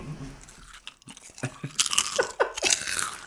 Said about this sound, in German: Na, willst du auch mal von meinem Apfel beißen?